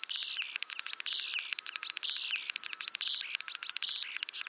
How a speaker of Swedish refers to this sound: som du hör en stare sjunga så är det en, som många andra arter som, som härmar mycket så har den liksom en del läten som är egna och en del läten som är härmningar. Och de här egna lätena de är ofta lite, så här, lite gnissliga.